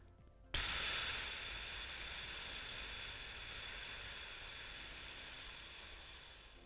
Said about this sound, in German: Und dann hören wir ein Geräusch. Und zwar ein Geräusch, wie wenn Luft aus einem Reifen rausgeht.